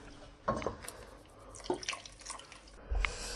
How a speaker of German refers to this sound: Ein Tropfen Olivenöl tue ich noch rein. So.